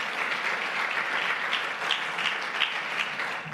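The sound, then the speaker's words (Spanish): After a prayer, a crowd claps together in steady, sustained applause for the King of Glory, a dense patter of many hands at an even loudness for several seconds. “Den un fuerte aplauso al Rey de la Gloria.”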